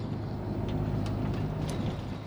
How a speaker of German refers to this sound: Jetzt kommt ein Bus angefahren aus der richtigen Richtung. Die Uhrzeit stimmt auch noch einigermaßen. Ja, Bus Richtung Pfarrkirchen, perfekt. Mein Bus.